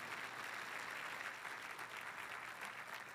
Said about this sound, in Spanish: Alguien tiene que aplaudir más que eso, Señor.